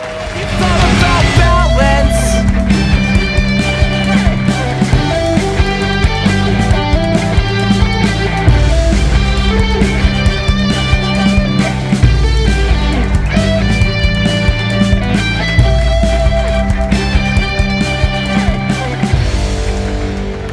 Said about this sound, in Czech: Mám čekat, než dohraje ta skvělá znělka, nebo mám pokračovat dál.